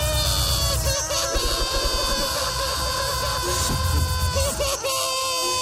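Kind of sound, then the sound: human body sound, people screaming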